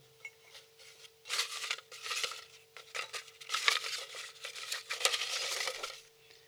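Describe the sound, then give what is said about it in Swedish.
Paper rustles and crinkles in irregular bursts of crisp, hissy crackling that grow busier and louder toward the end, with a faint steady hum underneath and no voices. “Gud vad härligt att prassla igen.”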